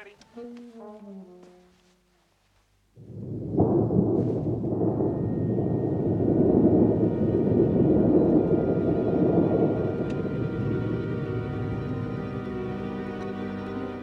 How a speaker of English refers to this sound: Could we hear a little bit of the storm, please,